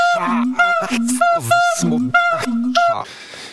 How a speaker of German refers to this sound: Und deswegen werden jetzt äh, bestimmte Wörter einfach automatisch rausgefiltert. Also wenn ihr ab und zu mal so ein Pieps hört, dann wisst ihr, da hat diese Automatik wieder angeschlagen.